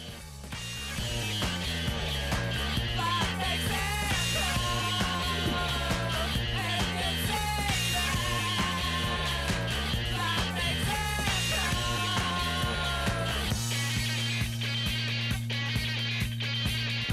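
A psychedelic rock song plays loud and steady, a full band with a pulsing bass line and layered guitar textures, shifting near the end into long sustained low chords.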